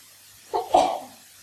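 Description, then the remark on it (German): A single fairly loud sneeze: a short voiced intake followed by a sharp, breathy burst, over a quiet background with no talking. “Gesundheit.”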